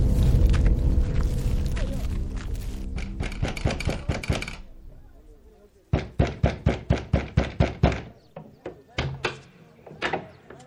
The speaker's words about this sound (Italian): Ma non vedo altri ingressi che la porta principale, Magister. Come pensate di entrare nell'edificio? Nel modo più semplice, bussando.